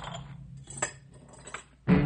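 Cutlery and dishes clink softly as they are set down on a table, a few light scattered taps close by, ending in a louder clattering burst.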